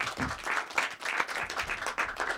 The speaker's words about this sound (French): Déjà, vraiment, faites du bruit pour les Antillais, s'il vous plaît, applaudissez-les.